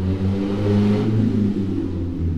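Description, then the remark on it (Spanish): A motorcycle engine revs loudly, a deep throbbing drone with a strong low rumble that rises slightly and then settles as it passes, with no voices. “Yo amo las motos, no sé si lo saben, bueno.”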